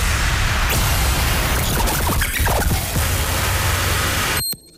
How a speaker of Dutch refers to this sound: Wat gebeurt hier eigenlijk? Ja. Ja, het is gewoon e- één grote ontploffing van een, eh, van een fabriek en een ruimteschip.